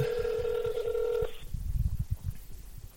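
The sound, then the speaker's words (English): A steady electronic phone dialing tone hums for about a second and a half, then cuts off abruptly, leaving muffled low thumps and rumbling handling noise. “get him on the line.”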